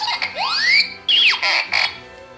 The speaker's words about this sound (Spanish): trae así sus botoncitos y ahí le vas picando y tiene todos los sonidos clásicos de Artu, el más icónico pues es